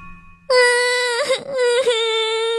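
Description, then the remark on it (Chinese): A princess in a royal palace cries loudly at night after her kitten goes missing, in a high, sustained wail that breaks into sobbing hitches twice before resuming, lasting a couple of seconds after a brief quiet start. “呜呜的哭声惊动了整个王宫。”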